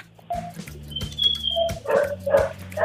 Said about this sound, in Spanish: ¡Ay, Satanás, no te asustes! ¡Es un perrito en el teléfono! ¡Ya tu perrito me asustó al gato!